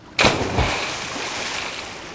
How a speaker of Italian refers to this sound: Ho giusto qui una muta da sub. La indosso. Mi tuffo in acqua.